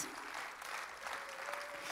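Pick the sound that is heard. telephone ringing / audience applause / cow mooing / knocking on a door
audience applause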